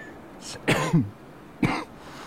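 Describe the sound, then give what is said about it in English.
Two rough, hoarse coughs, a raspy double burst followed after a short pause by a single harsh cough, over quiet background noise. “I'll recognize that same hoarse cough, that”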